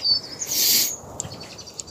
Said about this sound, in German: Das, das, das singen die Vögel. Ist das nicht schön? Das ist fast so schön wie ein betörender Duft.